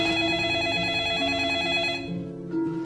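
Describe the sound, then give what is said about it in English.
A telephone rings with a loud, trilling bell tone that holds for about two seconds, fades briefly, then starts ringing again. No voices are heard. “And as soon as it's over, your phone rings.”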